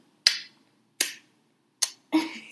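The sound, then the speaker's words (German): Four wet, smacking kiss sounds made on one's own thumb while holding another person's hand to the mouth, demonstrating the 'Hand-Stirn-Kuss' and made extra loud on purpose. Each is a sharp pop with a hiss that fades. The first three come at an uneven pace, and the last is longer and messier. No one speaks. “Okay, ich mache jetzt mal kurz, ich mache mal kurz den Hand-Stirn-Kuss”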